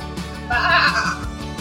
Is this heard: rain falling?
no